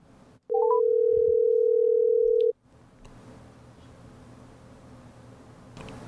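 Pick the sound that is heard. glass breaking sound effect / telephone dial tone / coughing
telephone dial tone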